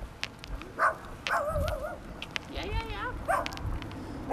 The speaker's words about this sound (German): von hinten ist der Hund, der hier freiläuft. Ja, der Bellt die Lucy an